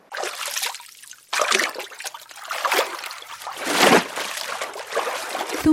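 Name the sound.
sea water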